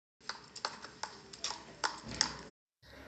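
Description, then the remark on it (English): Hooves clip-clop at a steady, unhurried pace on a hard road in New York, a series of distinct knocking steps as a horse-drawn carriage pulls up in front of a bank, with no voices. “He looks at the road and sees a horse drawn carriage pull up in front of the bank.”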